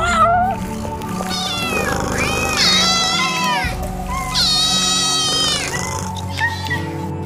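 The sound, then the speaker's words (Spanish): Several cats in a colony meow, their loud, drawn-out cries overlapping and rising and falling in pitch, with two especially long wails standing out over a steady chorus of mewing. “¿Cómo están hoy los gatitos más lindos?”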